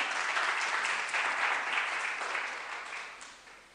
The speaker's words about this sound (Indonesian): Amin. Mari berikan tepuk tangan untuk Yesus Tuhan.